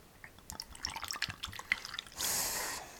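Bourbon is poured over a large ice cube: crackles and small drips and clinks, then a brief, steady splashing pour that stops abruptly. No one speaks.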